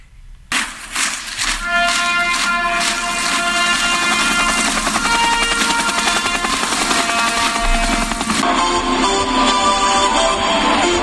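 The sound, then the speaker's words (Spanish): A Navy helicopter landing with the mascot Pochi aboard at a playoff game, its loud rotor roar and high turbine whine rising quickly and holding steady for several seconds, with no talking. “Y bueno, pues se ve y vamos a escuchar el momento en el que Pochi, esta mascota, baja literalmente de, una, de un helicóptero de la Marina, de un helicóptero de la Marina.”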